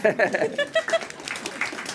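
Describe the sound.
A voice, sounding like laughter, is followed by a short burst of scattered audience applause, a rapid, uneven patter of claps that stays fairly light for about a second.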